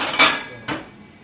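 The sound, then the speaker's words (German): Two metallic clanks about half a second apart, a second frying pan being set down on top of another pan as a lid, with a short ringing decay after each contact. “Wenn nicht, stellen wir noch eine zweite Pfanne.”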